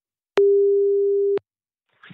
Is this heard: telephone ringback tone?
yes